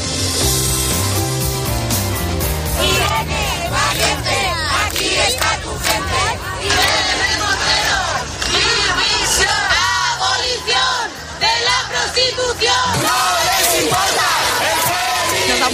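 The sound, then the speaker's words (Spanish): A dense crowd shouts and chants at a street march for International Women's Day on 8 March, many voices yelling together in a loud, continuous roar with rising cries and whoops over a steady babble. “Son algunos de los sonidos que han dejado las marchas por el Día Internacional de la Mujer, un 8 de marzo”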